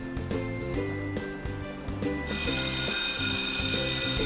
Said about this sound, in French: La sonnerie de l'école retentit.